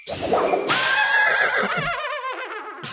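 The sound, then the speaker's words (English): A short jingle built around a loud horse whinny, a shrill, quavering neigh that wavers and falls in pitch for about two seconds before cutting off. No one speaks. “Jingle jangle, jingle horse. Here it is.”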